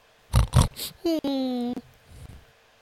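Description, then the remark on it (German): A voice imitates an animal meant as an inner 'Schweinehund' (pig-dog): two short, loud snorting grunts, then a drawn-out, squealing, whine-like call, followed by a faint murmur. “Ja, aber dieses hm, war doch eher ein Hund, also ein Schweinehund? Das war ein Schweinehund.”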